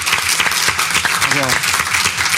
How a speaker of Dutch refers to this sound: Want jullie waren een heel mooi, stil, rustig publiek. Dus applaus voor jezelf.